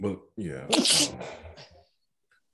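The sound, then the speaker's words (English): A cat gives a single sharp sneeze, a quick hissing burst, while someone talks and laughs around it. “that's the cat.”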